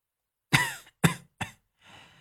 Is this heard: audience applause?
no